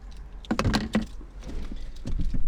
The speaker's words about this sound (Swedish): Men, men, men, det börjar med eh, att jag sitter i en bil.